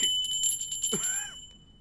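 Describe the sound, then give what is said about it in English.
A bright, high bell rings once, its shimmering metallic tone sustaining and slowly fading out over nearly two seconds, heard on its own with no talking. “It is very equivalent to Pavlov's dogs, where he trained the dogs to salivate when there was food, ringing the bell.”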